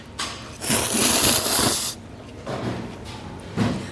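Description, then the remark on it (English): Noodles, brought to the mouth with chopsticks, being slurped along with air and liquid in a series of airy, hissing sucks: a short one, a long drawn-out slurp, then a few quicker ones, fairly loud with no talking. “And when you slurp everything up, it makes this sound that is very distinct.”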